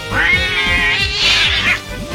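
A cat gives a loud, drawn-out meow, its pitch rising and falling in a long wavering call that fades out near the end, with no talking.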